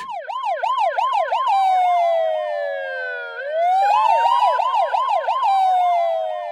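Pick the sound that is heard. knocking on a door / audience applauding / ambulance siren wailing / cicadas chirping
ambulance siren wailing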